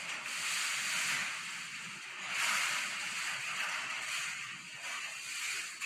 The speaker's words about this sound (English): This was a sustained 110 with gusts that I later learned were 140. And you think you're hearing rain hit the door? You're not. It's wind when you hear the sound. And here it is. That's 110 against the garage right now.